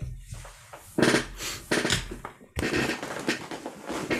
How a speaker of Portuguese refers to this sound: Vais ter de tirar o som da minha cadeira. Foda-se, eu já desisti, man. Eu, é, é, impossível. Tu estás sempre a mexer.